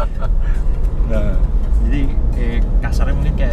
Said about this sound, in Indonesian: road noise sih minim tapi suara mesin emang agak agak ah. mungkin emang suara mesinnya kencang jadi udah diapain juga nggak bisa apa-apa iya.